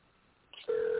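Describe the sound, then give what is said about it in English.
A steady electronic tone of an unanswered outgoing telephone call starts partway through after a moment of faint line hiss and a click, then holds loud and unbroken to the end, heard over a narrow phone line. “Okay, I guess she ain't gonna answer the phone.”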